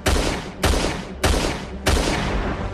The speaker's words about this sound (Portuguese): Com o passar do tempo, vemos os disparos a aumentarem de intensidade.